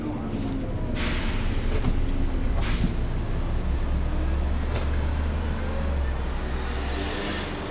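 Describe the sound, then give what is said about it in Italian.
A city bus, taken from Piazzale Roma to the start of Via delle Industrie, idles with a steady low rumble, broken by several sharp hissing bursts of air brakes. Indistinct voices murmur faintly in the background. “Ho preso l'autobus a Piazzale Roma, in pochi minuti sono arrivata qui, all'inizio di Via delle Industrie.”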